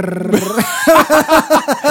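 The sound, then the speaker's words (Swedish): A voice imitates the rapid flapping of a card in bicycle wheel spokes as teenagers ride around: a buzzing, stuttering burst of about nine quick pulses, fairly loud, after a short voiced hum. “och några, några stöddiga tonåringar åker runt med sådär eh, kort i hjulen.”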